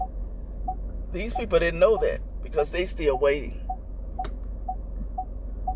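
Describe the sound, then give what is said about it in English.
A car's warning chime beeps steadily, a soft short tone repeating about every half second throughout, while a person speaks over it. “So I say all of that to say, and excuse my beeping, the beeping of the car.”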